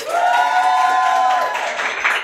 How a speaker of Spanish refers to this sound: Yo sé que hay más gente que ese aplauso. De nuevo, por favor.